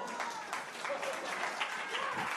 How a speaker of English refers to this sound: I'm gonna need more of a round of applause for that.